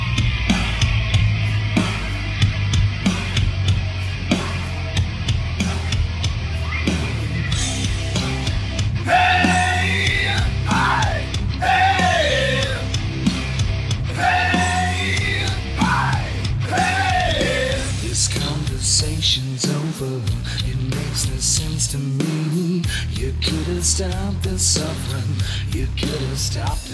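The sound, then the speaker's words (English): A loud, dense song plays continuously, with heavy driving instrumentation, a steady low end, and strained, shouted vocals sliding up and down over the top. “Enjoy the song.”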